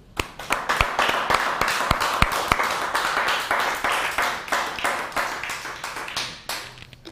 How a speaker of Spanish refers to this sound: Si nosotros damos un fuerte aplauso al Eterno.